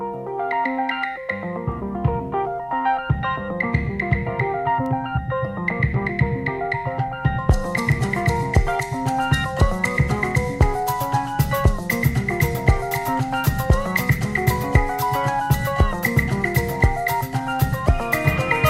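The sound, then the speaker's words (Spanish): The opening of a ten-minute 1980 pop song: a bright synthesizer arpeggiator cycles rapid repeating notes over a steady beat from the very start, with no vocals yet. About halfway through, crisp high percussion joins and the texture thickens into a fuller, driving electronic groove. “y, suena así, creo que es muy palpable ese arpegiador.”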